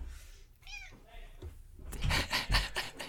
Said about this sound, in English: No. the little meows. they left. oh my gosh. She like meowed right into the microphone.